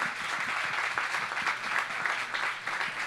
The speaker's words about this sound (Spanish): amén, si le va a dar el aplauso, déselo bien.